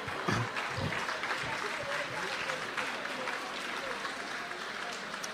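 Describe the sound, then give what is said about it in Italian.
A crowd applauds steadily, a dense, even wash of clapping at a fairly constant loudness that carries on for several seconds without letting up. “O sono genitori che applaudono per quello che non hanno fatto quando erano figli?”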